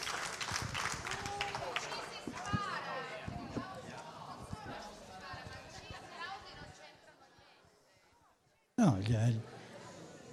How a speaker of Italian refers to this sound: Gli applausi vanno benissimo, viviamo, in, vogliamo perlomeno in questo contesto esercitare la libertà, no? ognuno si esprime, si esprime a modo suo.